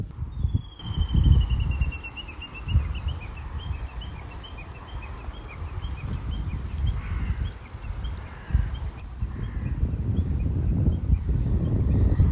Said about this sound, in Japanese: 鳥のさえずり。小川の音聞こえますか聞こえませんか私はそんな自然の音を聞きながら